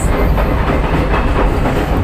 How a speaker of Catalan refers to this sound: Evidentment sentim el soroll del tren, eh, un tren que fa soroll, eh? És que... Eh, eh, també és eh, un tren diesel, eh? Sí, sí, sí, són tots trens eh, diesel que la línia mai fou elitzitzada